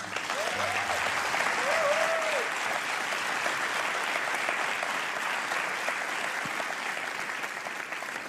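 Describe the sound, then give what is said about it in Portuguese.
A crowd claps steadily in a dense, sustained wash of applause lasting several seconds, with a brief whoop or two rising above the clapping near the start. “sala de palmas para a Patrícia.”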